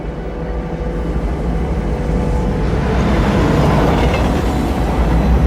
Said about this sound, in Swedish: nu, nu tittar vi alltså på en scen i filmen. Det är därför vi hör även filmljud där. Precis. Tåget som också... går.